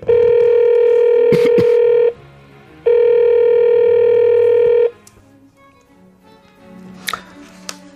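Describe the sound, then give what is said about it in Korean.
A loud telephone ringback tone sounds in two long steady bursts separated by a short pause, with a few quick button-press clicks during the first ring, then quiet background rustling, as a crab restaurant owner calls guests with a reservation to ask where they are. “어디쯤인가 전화해봐야겠다.”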